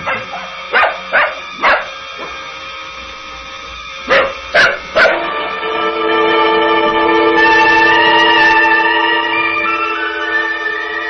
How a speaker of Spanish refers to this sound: ¿no oíste ladrar al perro, niña? Sí, pero ya no ladro más.